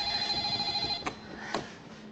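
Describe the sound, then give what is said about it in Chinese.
A telephone rings with a steady, high electronic tone for about a second, then cuts off, followed by two sharp clicks and a low background hum. No one speaks. “肯定又是婷的来电话了”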